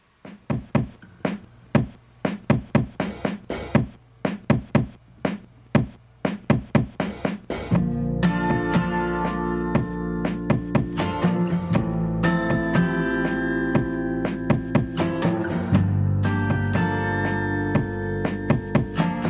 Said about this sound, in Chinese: 我们来听一下这首歌。